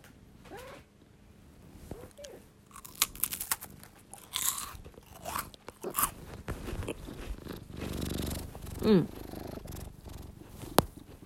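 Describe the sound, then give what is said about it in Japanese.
Crisp crunching as someone bites into a chocolate pie bought at Kaldi, several brittle bites followed by moist chewing, with brief rustles and a sharp crack near the end. “カルディでたまたま買ったチョコパイにはまっておりまして これめちゃくちゃ美味しいんだって今音でサクサク具合伝わりました伝わってくれたかな”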